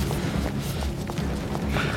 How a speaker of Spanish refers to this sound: nos da la espalda y sale disparado corriendo hacia el taller.